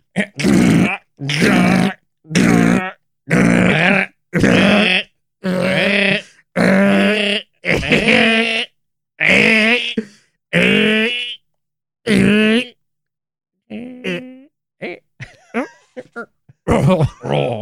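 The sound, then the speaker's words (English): A voice imitates a cat hacking up a hairball: about a dozen loud, rhythmic retching grunts in quick succession, then a few softer, broken gagging sounds trailing off. “Let's look at the title of this one here. It's uh, ooh, coughing up a hairball.”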